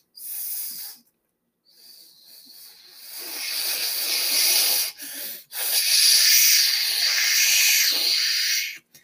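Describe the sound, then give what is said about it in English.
Sharp whistling wind from the south before a coming storm: a short hissing gust, a brief pause, then loud, bright, airy rushing that swells and holds with a couple of quick dips before cutting off. No voices. “There now came a sharp whistling.”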